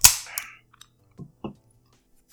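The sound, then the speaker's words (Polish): A can's slipping pull tab finally snaps open with a sharp pop and a short burst of fizzing hiss, followed by a few faint, scattered clinks in otherwise quiet surroundings. “Bo mi się zawleczka tu ślizga. O, dobra, poszło.”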